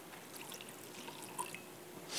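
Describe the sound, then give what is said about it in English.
Wine trickles softly into a cup, with faint dripping sounds scattered through a quiet background. It ends in a brief, slightly louder rush of pouring. No one speaks. “In the same way, he took the cup and blessed it and poured it out, saying,”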